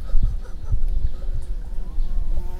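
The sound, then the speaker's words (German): A bumblebee buzzes right beside the people recording, to the speaker's right, in a low, steady drone, its hum swelling and fading slightly as it moves around, heard alone without any talking. “Oh, jetzt ist sie direkt bei uns. Ist das eine, eine richtige? Es ist eine Hummel.”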